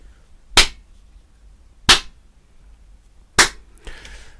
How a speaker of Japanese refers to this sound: 今ね、この部屋はあの、パーフェクトにはトリートされてない状態ですね。ちょっと手叩いてみますね。